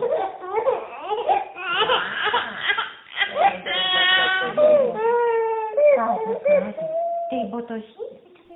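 A three-and-a-half-month-old baby, just woken from sleep, cries in a string of fussy, rising and falling wails and whimpers, with short breaths between them, continuing for several seconds with no one else speaking.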